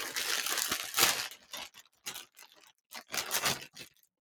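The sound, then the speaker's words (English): A plastic grocery bag holding gifts crinkles and rustles as the gifts are unwrapped, in irregular bursts, with a loud crackling stretch near the start and another toward the end, separated by brief quieter pauses. “all inside of a, uh, a, uh, a, a grocery bag, plastic bag.”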